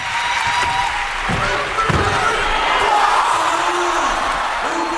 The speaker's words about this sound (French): Le même moment, mais sans commentaire cette fois. Côte à côte, l'athlète et son public. Écoutez le triple saut.